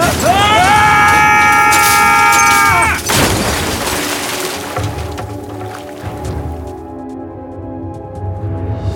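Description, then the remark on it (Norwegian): A minibus skids with a long, loud screech, then runs off the road into a river with a heavy crash, landing on its roof, followed by rumbling, crunching debris and a settling wash of noise that slowly fades. “Bilen har fått en slenge og kjørt utfor veien. Den havna rett i elva her nede.”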